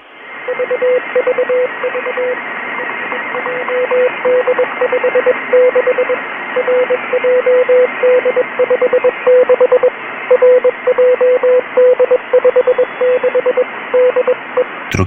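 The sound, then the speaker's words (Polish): A steady single-pitched tone keys on and off in short and long bursts, spelling out Morse code over a constant band of radio static and hiss, fairly loud and continuous throughout; a cyclic Morse transmission from a radio station that replaced its usual signal on 1 September 2010 at 04:05 UTC. “Zamiast tego można było usłyszeć cykliczne transmisje w postaci kodu Morsa.”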